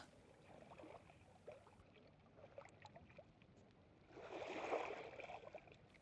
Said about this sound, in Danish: Kan du høre vandet?